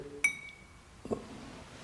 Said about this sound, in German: den Glaston genau analysiere, je nachdem wie ein Glas hergestellt ist, hat es unterschiedliche Qualität, damit auch unterschiedliche Schwingung in, in dem Kristall.